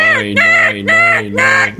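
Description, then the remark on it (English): Loud squawks from two seagulls fighting outside a studio, three harsh calls in quick succession, sounding like gulls bickering with each other, with no talking. “So the reason we just stopped, there were the sound of two seagulls fighting right outside the studio.”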